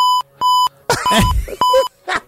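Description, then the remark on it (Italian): A series of sharp, steady electronic censor bleeps, about four of them, loud, cutting in and out over a muffled recorded voice that talks between and beneath them. “Cioè, praticamente che ha detto avete, avete, poi bip, bip, bip, bip.”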